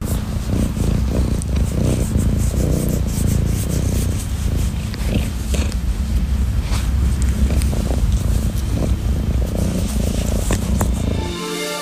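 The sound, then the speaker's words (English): A cat named Todd purrs steadily for several seconds, a continuous low rumbling drone with faint rubbing and fur-brushing noises mixed in, ending abruptly. “And um, yeah, I'm going to leave you with some Todd Purring ASMR”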